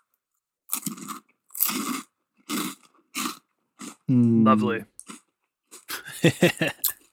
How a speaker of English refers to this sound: I'm gonna take a bite. These are ultra crunchy, known for the crunch.